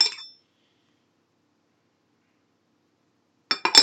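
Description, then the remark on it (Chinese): A lid is set onto a glass cup while pot-boiled milk tea is being made: one bright, short clink with a faint ring, a long silence, then a quick cluster of sharper clinks and rattles at the end. No voices. “好，然后我们再把它盖起来。”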